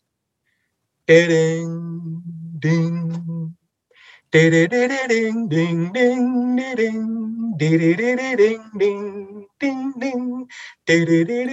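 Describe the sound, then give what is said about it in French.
A man sings from memory the intro riff of a heavy metal album with his voice as a blind test, loud, in chopped, sustained phrases separated by brief pauses. “te chanter en blind test les deux intros de ces albums, tellement je les connais par cœur”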